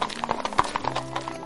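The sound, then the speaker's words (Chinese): Hooves of two black horses clip-clop at a steady trotting rhythm as they pull a carriage, sharp hollow knocks repeating over a low rumbling background. “几分钟后，一阵马蹄声传到了他们的耳朵里，原来是两匹漂亮的黑马拉着一辆马车，车上坐着两位夫人，他们裹着皮衣，雍容华贵。”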